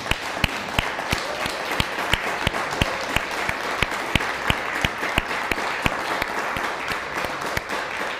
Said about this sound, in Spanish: Vamos a darle un fuerte aplauso a Alemania. Fuerte aplauso a Alemania.